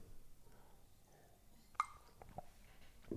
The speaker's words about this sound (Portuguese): Viram este barulho de, de esófago a borbulhar água?